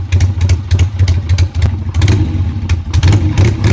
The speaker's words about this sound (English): Harley Davidson tried to patent the sound of there their motorcycles. Well, let's hear that sound for a second.